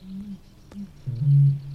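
A Eurasian bittern's deep, hollow booming: a couple of soft low grunts, then one louder, sustained boom, resonant, with no other sounds around it.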